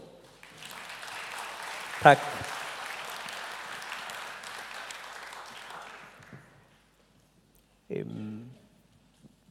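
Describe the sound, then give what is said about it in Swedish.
A church audience at Citykyrkan breaks into steady applause for the worship team, lasting several seconds, a broad wash of clapping that fades out; a man speaks briefly over it, then talks again after it ends. “Kan vi ge, ge dem en, en applåd?”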